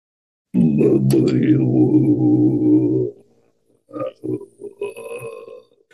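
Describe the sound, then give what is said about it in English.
A deep, gravelly throat-singing drone in the Sardinian bassu style of canto di tenores, produced with the ventricular folds rather than the vocal folds, held steadily for a couple of seconds by a single voice demonstrating it, then a pause and a few short spoken fragments. “It is a, a, voice that is not produced with the vocal folds, but a lower part of the muscular system, uh, the ventricular folds, and that sounds like that.”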